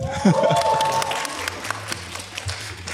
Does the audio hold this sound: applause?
yes